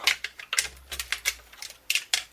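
A tuning key turning the tension lugs on a pandeiro about 30 cm across, loosening a head that had been tuned, producing a string of sharp, irregular metallic clicks and scrapes, about ten of them, crisp and bright with no talking over them. The pandeiro has six tuning points.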